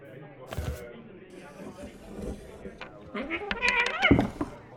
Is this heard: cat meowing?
yes